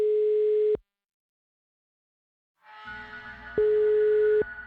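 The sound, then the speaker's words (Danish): A telephone ringing tone sounds as a steady electronic tone, breaks into silence, then returns over a murky background hum, a call attempt to a man's phone number ringing out with no answer yet. “Nu prøver jeg så at få fat på Odin, Hans telefonnummer og motellets mailadresse fremgår jo som kontaktoplysninger”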